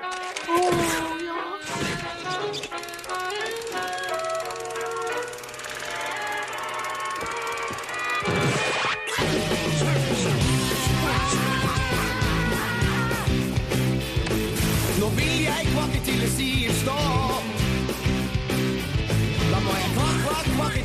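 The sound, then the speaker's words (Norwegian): A cartoon TV theme song intro: a sparse, bright opening that bursts into a loud, full-band arrangement with energetic sung vocals and quacky duck-like sound effects, continuing steadily to the end. “her får dere høre introen til Kvakkpakk!”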